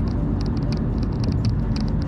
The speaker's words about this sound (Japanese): 何やってんだこの車、どけよ。